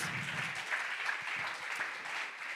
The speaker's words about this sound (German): Ja, Applaus, Applaus.